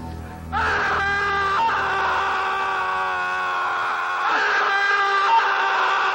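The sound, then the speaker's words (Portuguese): A man, the hero at the end of the film Deadly Play, lets out a long, anguished scream, sustained and loud for several seconds with a brief break midway, strained and harmonic-rich, with no other sounds around it. “dando a entender que caçar a Rogan na mata, finalizando com um grito sofrido do herói.”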